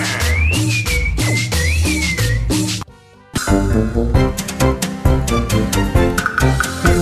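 A person whistles a sliding melody over loud, upbeat band music; after a brief near-silent break, the music returns with bright, rhythmic instruments.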